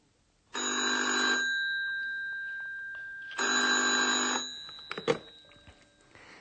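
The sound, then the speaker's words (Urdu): A telephone rings twice with a classic bell-like trill, each ring lasting about a second and a half with a pause between, followed by a click as the receiver is picked up at the reception of the Hotel Europa. “تو جب آپ فون پر ہونے والی یہ بات چیت ابھی ایک بار پھر سنیں تو ان سوالات کو ضرور اپنے ذہن میں رکھیں”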